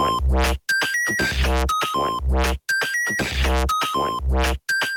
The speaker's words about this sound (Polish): Tak, tutaj został zastosowany syntezator. W sensie ktoś po prostu wyciął sample z własnego głosu i go użył jako sample. I proszę bardzo, brzmi to dosłownie jak syntezator.